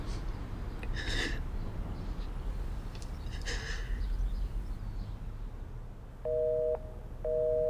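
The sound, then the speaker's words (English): A telephone disconnected-number tone: two steady, mid-pitched electronic beeps, the second cut off, sounding near the end over a low background hiss. Two harsh caw-like bursts come earlier. “The number's been disconnected.”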